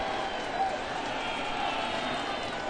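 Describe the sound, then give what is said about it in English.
A steady wash of simulated ballpark crowd noise for a simulated baseball game in an empty ballpark, an even, continuous murmur of many voices with no distinct cheers or claps standing out, holding at a moderate level throughout. “Crowd sure seems to be loving it because they're not really here.”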